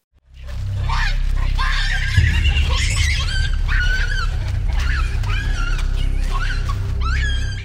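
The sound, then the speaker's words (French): Baboons grunt in a deep, continuous rumble while shrill, repeated screams rise above it in short bursts, loud throughout; the dominant baboon grunts while the subordinate one screams. “Et là, tu constates un truc assez rigolo chez le babouin, c'est que le dominant grogne, le dominant Dominé hurle à tue-tête.”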